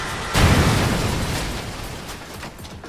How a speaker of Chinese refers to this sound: 直升机上方的引擎爆出了火花和浓烟，机身随即往一边倾斜。快速下坠。